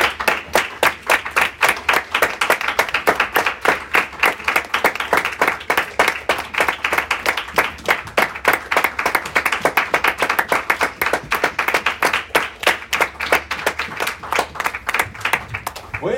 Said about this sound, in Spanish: Le damos un aplauso más al Señor Jesús, hermano.